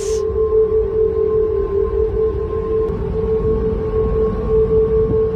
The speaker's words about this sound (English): High winds blowing through the railings have caused the bridge to produce a sound described as a whistle